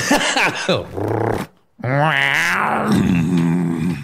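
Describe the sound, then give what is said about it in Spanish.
A pet growls in two loud bursts, a short rumbling snarl and then a longer, wavering growl after a brief pause, with no talking over it. “¿Quieres escuchar? Ronroneando como.”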